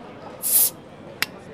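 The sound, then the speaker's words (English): A bottle is opened: a brief, bright fizzing hiss of escaping gas, followed a moment later by a single sharp pop, with no one talking. “All right, so why don't you just sit back, relax, pop a bottle.”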